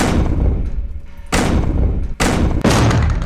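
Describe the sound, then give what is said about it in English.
Three heavy, booming bangs on a laboratory door, loud, the first after a low rumbling pause and the last two coming quickly together, with no voices. “He closed the panel just as he heard the first bang at the laboratory door.”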